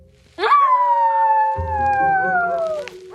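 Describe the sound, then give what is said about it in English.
A single long, wolf-like howl rises sharply, then slowly slides downward for nearly three seconds, loud, with a low rumbling, wavering layer joining halfway through. “For a minute there, I thought it was a dire wolf.”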